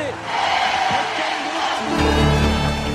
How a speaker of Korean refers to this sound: 앞서가고 있습니다. 한국의 승리를 환호하고 있습니다.